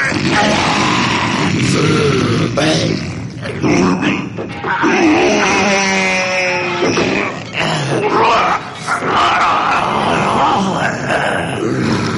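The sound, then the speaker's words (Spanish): Loud, continuous beastly growls, grunts and drawn-out moans from two werewolves, rising into wavering howl-like cries around the middle, sustained and rough throughout. “Son dos, dos hombres lobo.”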